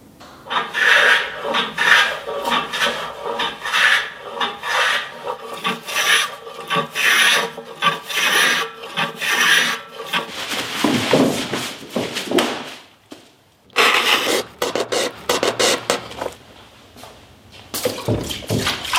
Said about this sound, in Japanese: 今朝は大きな和太鼓作りのいい音